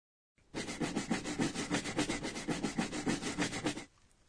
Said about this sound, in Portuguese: Esse é o som feito ao se limpar o chão esfregando. Essa expressão é usada quando se limpa algo para se remover uma mancha ou sujeira, por exemplo.